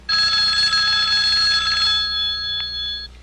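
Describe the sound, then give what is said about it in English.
A public telephone's bell rings loudly in one continuous metallic burst of about three seconds, its rattle thinning out toward the end, with no voices. “There it goes again, that ringing tone. It's coming from that public phone.”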